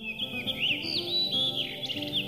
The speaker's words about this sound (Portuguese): O protagonista da nossa aventura selvagem de hoje chama-se Melro das Rochas. É esse o seu nome comum. O trinado é, à primeira vista, algo parecido com o do melro preto, mas de preto, este que estamos a ver e a ouvir nada tem.